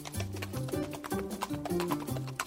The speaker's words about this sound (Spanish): Suena como... Mm, los pasos de un caballo,